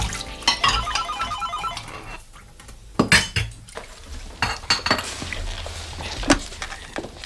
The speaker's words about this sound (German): Der erste Detektiv stand in Rosie Renwicks Küche und wusch Geschirr ab, als das Telefon klingelte.